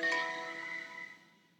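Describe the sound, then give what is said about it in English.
A cell phone notification chime: one bright electronic ding that rings out and slowly fades over under two seconds, moderately quiet, with no voices. “silence your cell phone”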